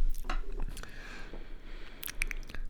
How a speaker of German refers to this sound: Entschuldigung, da muss ich kurz meine Stimme ölen mit einem Schluck Wasser.